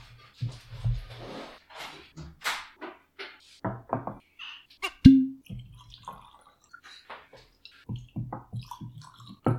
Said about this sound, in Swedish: Ska vi hälla upp lite Glengoyne också? Det ska vi göra. Ja. Jag tar fram flaska och glas. Du serverar.